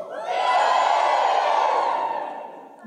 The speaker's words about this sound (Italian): Quanti spiriti sono pronti per ricevere la parola questa sera? Farmi sentire un urlo spirituale.